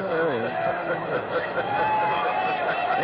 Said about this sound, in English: And the crowd, of course, obviously ra- reacting to uh, Randy Savage's presence in our radio booth, number three, down there in the dugout.